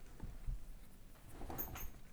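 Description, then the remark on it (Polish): A dog comes over and shuffles and pads around a quiet room, with soft irregular thumps and scuffs and a brief high jingle or squeak toward the end. No one speaks. “I psa, który przyszedł.”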